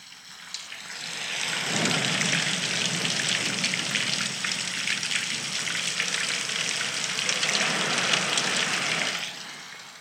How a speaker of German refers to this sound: Ich habe jetzt hier, ähm, ich habe hier jetzt so ein bisschen äh, Donner drinne, ich habe so ein bisschen äh, Sprudel drinne, Regen äh, und so weiter.